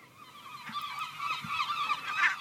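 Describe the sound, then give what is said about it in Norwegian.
A gull in Fredrikstad, Norway, nesting on the roof of a student's car, calls with harsh, repeated squawking cries that run together for a couple of seconds, loud, with no voices around it. “Ja, dette var uka da ei måke i Fredrikstad ble kjendis i Norge.”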